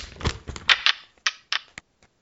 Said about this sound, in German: Hast du schon gewürfelt? Nee, mache ich jetzt. Du, dann mach jetzt mal.